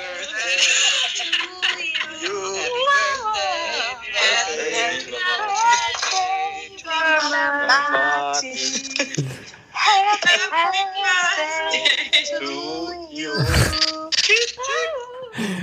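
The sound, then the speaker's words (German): Colleagues sing happy birthday together for a colleague over a video conference call, out of sync and wavering in pitch, the wobbly, clashing chorus running steadily with a couple of brief glitches. “wir singen immer den Kollegen, wenn sie Geburtstag haben, dann in der Videokonferenz”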